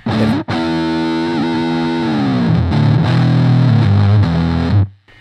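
A heavily distorted electric guitar played through a fuzz pedal plays crunchy fuzz chords, dense and saturated with rich harmonics, with a brief cut near the start and an abrupt gated stop at the end from the pedal's gate.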